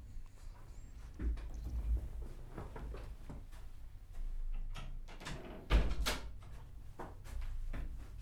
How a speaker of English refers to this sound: I'm gonna pause for a second and shut my door.